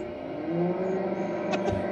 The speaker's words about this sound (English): just warming up my, my dinner, my lunch. just trying to get healthy. Is that the microwave?